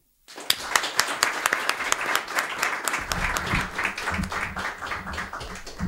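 An audience breaks into steady applause, many hands clapping in a dense, crackling wash that starts abruptly and holds at an even level; a low murmur of voices joins partway through.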